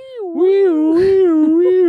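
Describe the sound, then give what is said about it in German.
A person imitates the siren of an emergency vehicle passing by with a sustained, wavering tone that rises and dips slowly, rich in harmonics, lasting the full two seconds with a brief breathy burst partway through. “Manchmal, wenn äh, so ein Wagen an mir vorbeifährt mit der Sirene, mache ich selber Sirenengeräusche.”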